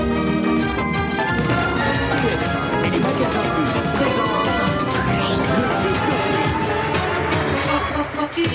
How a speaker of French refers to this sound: voilà, tous les génériques en un générique. Hein, ça reste dans la tête. Et puis c'est agréable. La mélodie, est... la hein. mélodie est agréable.